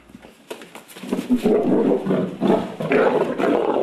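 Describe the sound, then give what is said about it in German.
A lion roars, a deep, rough growling that swells after a short onset and holds loud and grumbling for about three seconds, with no talking; one of two one-year-old lions, King and Elsa, bought from a circus and kept behind thin bars in the middle of a village. “Und jeder König hat seine Königin, also hat sich Ladia gleich zwei Löwen vom Zirkus gekauft.”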